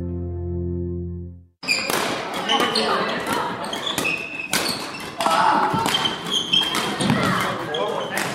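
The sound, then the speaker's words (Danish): A busy indoor sports hall of a badminton club in Aarhus, Denmark, full of children and young people playing badminton, with sharp taps and thuds of shuttlecocks and footsteps over a loud echoing wash of young voices and squeaking shoes. “Det her er lyden af en halv fuld af børn og unge, der spiller badminton.”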